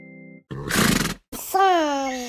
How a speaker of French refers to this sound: Ah Jingle